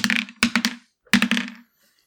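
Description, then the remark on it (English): Dice are rolled for initiative, clattering across a hard tabletop in two quick bursts, each a rapid cluster of sharp, hollow clicks and knocks that settle and stop. The sound is moderately loud, with no voices. “let's grab our dice and roll initiative.”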